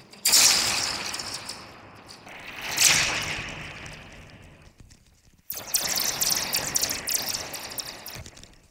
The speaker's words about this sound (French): Ah oui, c'est un ressort tout simplement, un ressort long de 5 mètres, hein, tendu entre ces deux extrémités, sur lequel on frappe, ou on frotte, avec des objets divers et variés.